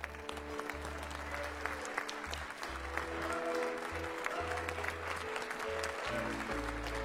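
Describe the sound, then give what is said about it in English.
An audience claps steadily for several seconds to give God praise after a prayer, a dense crowd applause with scattered cheers, while deep sustained organ or bass notes play underneath throughout. “Now give God some praise.”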